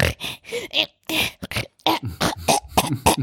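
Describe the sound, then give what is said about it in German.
A voice imitates how a baby girl breathes while lying in her bed, as if she were about to choke: a rapid series of short grunting, gasping and throat-clearing sounds, fairly loud, with no actual words. “in ihrem Bett liegt, dann atmet sie so, als würde sie jeden Moment ersticken. Dann macht sie so ganz viele Geräusche, so.”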